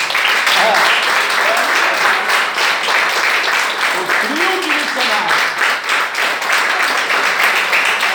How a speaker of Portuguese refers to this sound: Amém? Pode aplaudir Jesus.